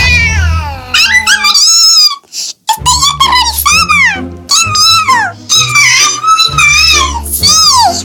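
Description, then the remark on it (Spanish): A cat named Kitty meows insistently over and over, loud high-pitched calls that rise and fall, some short and some drawn out into wailing cries, with barely any pause between them. “Comporte señorial ojos soberbios, largos bigotes y la agilidad felina de sus pisadas aterrorizó a todos los ratones con tan solo saber de su existencia.”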